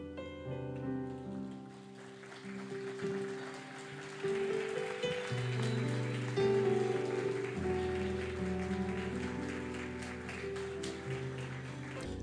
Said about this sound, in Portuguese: Em nome de Jesus, comamos todos e aplaudamos ao Senhor.